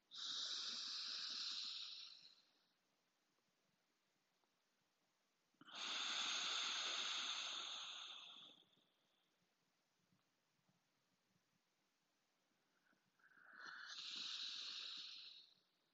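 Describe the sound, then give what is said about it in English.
Three long, airy breaths pushed out through the right nostril during a yoga breathing exercise, each lasting a few seconds with a hissy rush of air, separated by quiet pauses. “Hold and exhale through your right. Two more times.”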